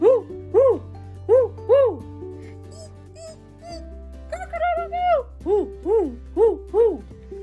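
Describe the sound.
A voice imitates an owl with a rhythmic string of rising-and-falling hoots, fairly loud, broken midway by a brief wavering, higher-pitched stretch before the steady hooting resumes.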